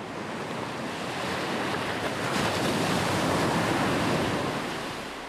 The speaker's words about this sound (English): The fierce sea broke harshly in the day.